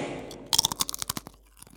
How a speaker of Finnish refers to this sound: Siinä tulikin tämän viikon mysteeriääni ja kysymyksenä on tällä kertaa, minkä muotoinen sipsi siellä tällä kertaa rasahtaa.